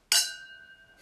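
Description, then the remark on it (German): A bright clink of glasses touching in a toast, followed by a clear ringing tone that slowly fades, with a second soft clink just starting at the end. No voices. “Prost. Prost.”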